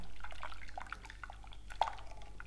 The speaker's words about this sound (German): Das jetzt mal nur für die Ohren, für euch. Für die ASMR-Mäuse unter euch. Hm, okay. Sahne, die klatscht.